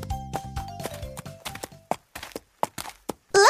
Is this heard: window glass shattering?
no